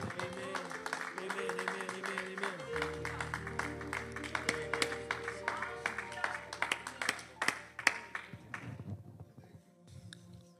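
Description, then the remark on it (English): An audience claps their hands to the Lord together, a dense crackle of many hands over sustained low musical chords, the clapping growing sparser and fading out near the end. “Come on, let's clap our hands one more time if you can under the Lord, and you may be seated.”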